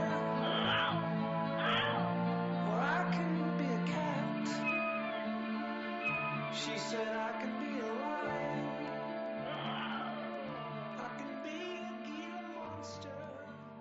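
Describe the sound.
In a song, the female vocalist mimics the cries of the animals named in the lyrics, seemingly improvised, caw-like and meowing sounds over a steady, sustained musical backing; the imitated calls rise and bend in pitch, recurring every few seconds.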